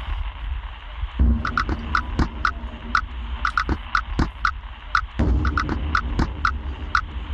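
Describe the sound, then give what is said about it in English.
A UK-made music track built from firework sounds: a sparse, bell-like chiming melody, like carillon bells, rings out in short repeated notes over a deep rumbling bed, with heavy booming firework explosions landing underneath as low, punchy downbeats. “uses the explosion as a downbeat below a sparse chiming melody. It's a bit like uh, carillon bells and some massive bombardment.”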